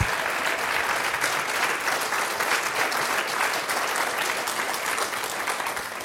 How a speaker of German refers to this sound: Let's give Jesus a hand. Und Jesus einen Applaus geben. Halleluja!